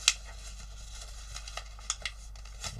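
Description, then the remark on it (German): Stiff, hard paper being folded in the middle and folded over while making a paper crane: a sharp crisp crackle at the start, then a few soft rustles and creases spread over a couple of seconds, against a quiet background hum. “klappen das hier um.”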